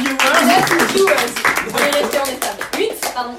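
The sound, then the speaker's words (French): A crowd claps for the speaker's first-round win at a tournament, a dense, steady burst of applause with voices calling out over it. The applause lasts about three seconds and thins toward the end. “On peut m'applaudir.”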